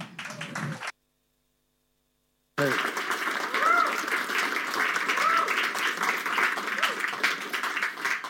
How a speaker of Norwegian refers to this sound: Gjennom varm applaus.